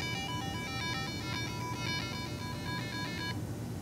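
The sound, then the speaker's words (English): Bleepy chiptune synth tones from a micro:bit microcontroller, produced as the device is moved around, chirp in quick, stepping bursts of bright electronic notes for about three seconds over a low background rumble, then cut off. “As you move it, it makes kind of cool, bleepy, like chip tune synth tone effects.”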